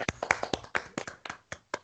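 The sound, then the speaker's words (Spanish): Hands clap about a dozen times as applause for Granada, in a quick, slightly uneven rhythm, sharp crisp smacks that gradually space out and soften toward the end, with no talking. “Un aplauso para el Granada.”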